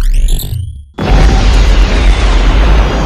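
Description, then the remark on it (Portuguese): A high, whining tone gives way to a sudden loud explosion, a tactical blast spreading over the outskirts of New York, which rolls on as a heavy, sustained roar and rumble for a couple of seconds. No one speaks. “A explosão abala o cinto, se espalham pela periferia de Nova York.”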